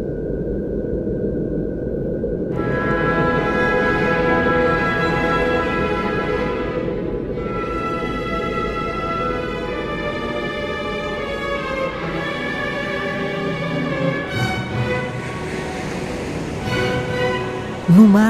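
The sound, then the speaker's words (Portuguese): Sonified radio emissions from Saturn: a continuous low rumbling roar layered with eerie, wavering whistle-like tones that rise and fall, filling the whole stretch steadily with no voices. “Este é o som de Saturno.”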